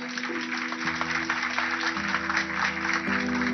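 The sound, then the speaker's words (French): Sustained applause from a large crowd, a dense, even wash of clapping that holds steady throughout, with a low droning hum underneath and no voices. “Très vite, les applaudissements laissent place aux critiques.”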